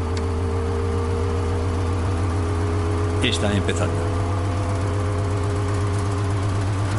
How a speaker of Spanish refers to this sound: Cuando el cohete acelera hacia la barrera del sonido, las ondas de choque aumentan. Mach 9,3, vibración de la cápsula 150 decibelios y aumentando. Haciendo vibrar la cápsula violentamente.